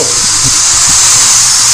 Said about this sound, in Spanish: A ver, por favor, si los del sector de al lado dejan de usar el taladro.